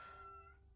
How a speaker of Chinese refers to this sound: 对不起，我们家猫一直在外面吼，你闭嘴。